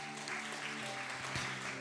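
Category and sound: crowd, applause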